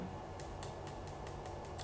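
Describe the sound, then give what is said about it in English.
A deck of tarot cards being shuffled by hand for a reading, heard as a quiet, steady series of soft snaps and flicks about four times a second, with no talking. “shuffling them.”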